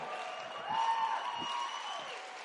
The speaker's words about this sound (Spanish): Si le está dando un aplauso, no te está saliendo, dáselo fuerte.